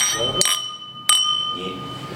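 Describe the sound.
Drinking glasses clink together twice in a toast during a whisky tasting, bright, each tap leaving a clear ringing tone that lingers. Faint voices murmur in the background.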